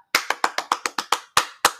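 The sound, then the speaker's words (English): A single person claps about nine times in a quick, steady rhythm, with one slight hesitation near the end. The claps are crisp, and no one speaks. “Let's clap it up.”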